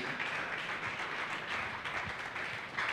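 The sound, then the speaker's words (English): A church audience claps their hands together when the preacher calls for it during a sermon, a dense, steady wash of many overlapping claps that holds at an even, fairly loud level for the full three seconds with no voices. “Clap your hands for this again.”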